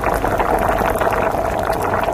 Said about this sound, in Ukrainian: Ну а це 55 децибелів, це, це як що? Ну це як чайник кипить, знаєш? Це приблизно як воно буде.